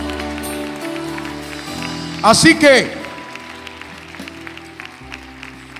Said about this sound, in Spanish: Papito, dámele el aplauso a Jehová de los ejércitos. Dáselo.